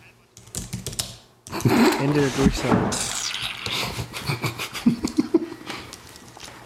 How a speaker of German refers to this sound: Entschuldigung, ich muss die Tastatur sauber wischen. Mit meinem vollen gerotzten Taschentuch.